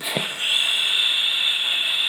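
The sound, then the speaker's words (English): A voice imitates an air conditioner with a steady, breathy hiss held for about two seconds, starting with a brief soft puff and then a constant, even whoosh. “I had to turn off the AC because even through the closed door, it's just”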